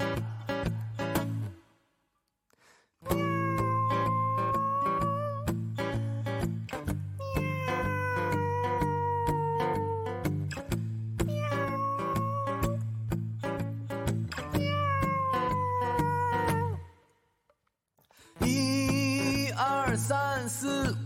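Cats meow loudly and repeatedly in long, wavering, tonal cries, one after another with short pauses, over a steady low rhythmic backing, with no talking.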